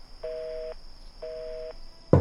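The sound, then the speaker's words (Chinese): Two steady phone tones of a call to a switched-off phone, each about half a second long and evenly spaced, sound at a mid pitch over a faint hiss, followed by a brief louder burst of noise at the end. “但电话那边。已经是关机”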